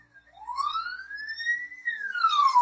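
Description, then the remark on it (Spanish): An ambulance siren wails by, its tone rising slowly then sliding back down, fairly loud and steady with no voices over it. “Y mientras que la ambulancia va.”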